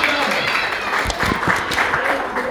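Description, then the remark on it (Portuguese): An audience applauds the Lord in a dense, steady wash of many hands clapping at once, holding an even loudness throughout, with a few muffled voices mixed in beneath the clapping. “Aplauda o Senhor.”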